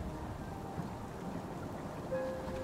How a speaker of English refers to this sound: You are not sure how you got here, as the storm seemingly appeared from out of nowhere.